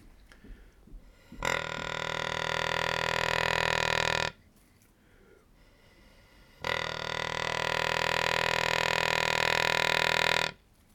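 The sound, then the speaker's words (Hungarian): A wild boar caller imitates a sow's deep, gurgling grunt, the call a sow uses to call boars in the rutting season and to gather her piglets, in two long, loud, buzzy calls of about three seconds each, separated by a short pause. No one speaks. “mert a kocának az a morgó mély röfögő hangja”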